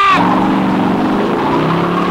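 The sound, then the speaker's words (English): A car engine roars loudly and steadily as the vehicle accelerates hard, its revving tone climbing and sustained over a couple of seconds, with a brief tire squeal at the start. “And he blasts off”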